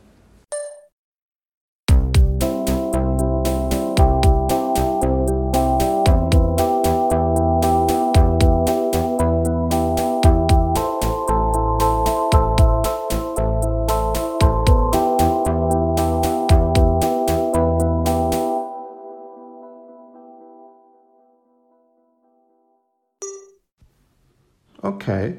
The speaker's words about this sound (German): Natürlich habe ich bei GarageBand rumgespielt. Ich habe die Instrumente wie immer verändert.